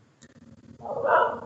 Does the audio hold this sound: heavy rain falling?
no